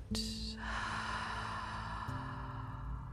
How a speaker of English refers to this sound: Again, just like that, deepening your in breath and letting your out breath be even longer. Activating your parasympathetic nervous system as you do. Breathing in, breathing out